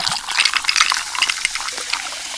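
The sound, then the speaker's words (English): Pepsi Zero Sugar being poured over ice, with a dense, steady crackle of fizzing carbonation bubbles filling the glass, fairly loud, continuous throughout with no voices. “Now I'm pouring it over some ice Hear all those deliciously fizzy Pepsi bubbles?”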